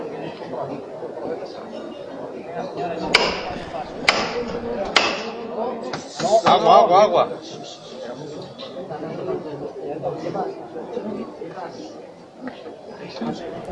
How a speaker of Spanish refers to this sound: Sonidos desde la calle Almenas, del paso del Santísimo Cristo yacente. Ahora sí, luz verde para que se levante. se levanta, la verdad es que muy bien. O sea, sonido de esfuerzo,